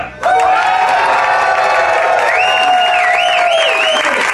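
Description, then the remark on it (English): The live studio audience of The Von Haessler Doctrine radio show on WSB bursts into loud applause and cheering almost at once, with shrill whistles and whoops rising over the clapping. The roar holds steady for about four seconds. “So I just heard the audience.”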